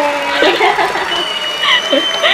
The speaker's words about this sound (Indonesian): Tepuk tangan.